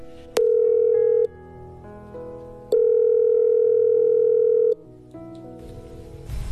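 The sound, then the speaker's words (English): A steady electronic telephone tone sounds twice in long, even bursts separated by a pause, loud and clear over faint background music, as a call is being placed. “So uh, oh, let, oh, let, let's phone her now.”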